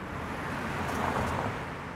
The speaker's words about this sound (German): Und das merke ich auch auf dem Trace, obwohl ich ihn nicht verlasse. Der Parkway ist hier nicht nur Ausflugsziel, sondern auch Pendlerstrecke mit deutlich mehr Verkehr.